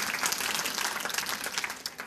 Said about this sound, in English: We can give her a round of applause, thank you.